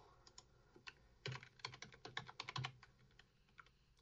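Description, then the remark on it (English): Rapid typing on a computer keyboard, a quick irregular patter of clicks that speeds into a dense burst midway, then thins out to scattered taps. Fairly quiet, with no voices. “I hear keyboard, so you're uh, looking for help with English, though, right?”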